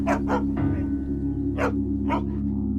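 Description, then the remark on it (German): A farm watchdog guarding eggs from strangers barks four times in short, sharp bursts, two quickly together, a pause, then two more, all over a steady low droning hum. “Köter, passt da ab, dass sie kein Fremden daran zu schaffen mogen.”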